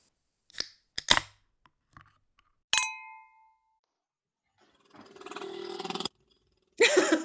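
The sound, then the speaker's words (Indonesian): A few sharp clicks and knocks, then one bright clink of glasses raised in a toast that rings out and slowly fades, followed by a loud, hissing burst of noise. No one speaks. “Siapin amunisinya, duduk santai, and angkat gelas.”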